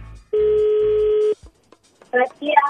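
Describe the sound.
A single steady electronic telephone tone sounds for about a second, like a call ringing through on the line, followed by a brief pause and then a voice beginning to speak.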